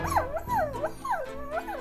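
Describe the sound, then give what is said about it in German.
A male dog lying motionless on a sofa whimpers mournfully, a series of four high, wavering whines that each slide downward in pitch, repeating at a steady rhythm with no voices present. “Stattdessen liegt er reglos auf dem Sofa, nagt lustlos an seinem Kauknochen und stößt nur ab und zu Laute aus, die von abgrundtiefem Leid künden.”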